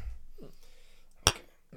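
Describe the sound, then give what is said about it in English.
Two glasses clink together once in a toast, a sharp tap with a brief bright ring that fades quickly. Nobody speaks. “Nice. nice. Cheers.”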